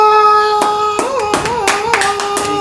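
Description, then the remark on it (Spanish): Scattered applause for a guest: a handful of sharp, irregular claps ring out over a steady, humming musical tone that wavers slightly in pitch, with no talking. “llevamos con un fuerte aplauso al buen”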